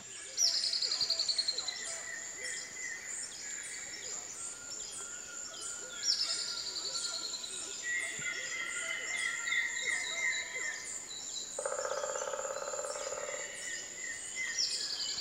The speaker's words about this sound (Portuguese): É o caso, por exemplo, desse pássaro que canta a poucos metros de nós. É uma choquinha ornada. O seu canto agudo e delicado avisa os outros pássaros que o dia já começou.